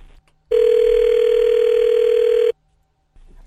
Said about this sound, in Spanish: Ahí le estamos marcando, no haga ruido